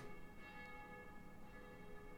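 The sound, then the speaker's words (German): Church bells ring softly in the background, a steady wash of sustained metallic tones with no distinct strikes standing out. No one speaks. “jetzt hören wir Kirchenglocken im Hintergrund.”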